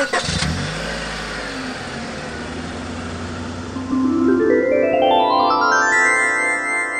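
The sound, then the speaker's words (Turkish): A car engine starts with a thump, idles roughly, then revs up with rising pitch as the vehicle pulls away, the loud engine note climbing steadily through the gears. “Kızı acile kaldıracağız araba bende.”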